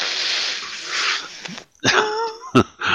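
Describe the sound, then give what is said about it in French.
A voice imitates a big dog barking: two or three gruff, loud woofs, after a stretch of steady hiss at the start. “En gros chien.”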